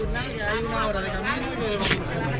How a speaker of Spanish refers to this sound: Creo que, lo podéis oír, el, murmullo de todos nosotros.